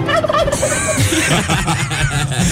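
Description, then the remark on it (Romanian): Several turkeys gobble loudly and continuously, their rapid, warbling calls overlapping with no pauses, a dense flock chorus filling the whole stretch. “așa au apărut uh, curcanii în viața lui Morning Glory aici, la Rock FM”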